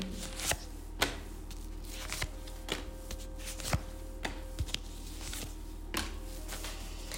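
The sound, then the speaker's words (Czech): Tarot cards being drawn and shuffled, with a series of crisp, papery snaps and slides spaced irregularly over a low steady background hum; no one speaks. “Vytáhneme další karty, ať si to upřesníme.”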